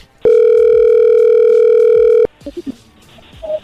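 A telephone line tone as someone's phone is called: one loud, steady mid-pitched ring tone held for about two seconds, then cut off, followed by a few faint clicks and short electronic blips.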